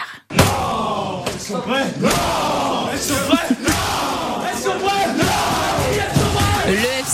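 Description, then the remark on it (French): FC Nantes players cheer and shout loudly in their locker room after a 2-1 win at Toulouse, overlapping yells and whoops sustained for several seconds, with a few thuds and bangs mixed into the celebration. “Ça méritait bien une explosion de joie dans le vestiaire.”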